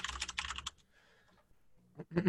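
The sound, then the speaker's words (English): A quick flurry of clacking computer keyboard keystrokes, fairly loud, as someone quickly searches something on Google; it stops for over a second and then starts up again in another short burst. “Brought to you by the newest keyboard.”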